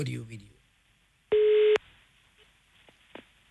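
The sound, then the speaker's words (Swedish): A brief bit of talk gives way to a single steady telephone ringing tone, a short flat beep of about half a second, followed by a few faint clicks on the line, as the radio show Äntligen morgon dials a call. “Jag vet inte om jag slog fel siffror, men vi provar.”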